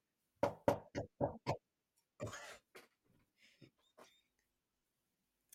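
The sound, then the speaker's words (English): A quick run of five or so sharp knocks on a desk, then a rustling scuffle and a few faint taps and shuffles as someone fidgets in a chair, grabbing things, with no talking. “I can't keep still on my desk. I'm grabbing shit. I'm moving in my chair.”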